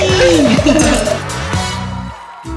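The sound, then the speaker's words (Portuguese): Wine glasses clink together in a toast, a bright ringing touch heard amid a lively, cluttered mix of voices and room noise. “vamos lá então a mais um brinde, planejamento, viagem à Itália com as gurias do vinho. Opa, tchim! tchim.”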